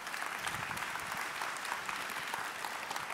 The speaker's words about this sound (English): so give them a big hand. They're newlyweds here. Come on up.